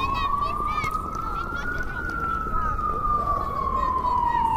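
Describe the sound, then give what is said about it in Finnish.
An ambulance siren wails loudly in Kraków, Poland, its single tone slowly rising and then falling, over a constant rumble of busy city street traffic. “Ja myös ambulanssien äänet kuuluvat oleellisesti suurkaupungin elämään.”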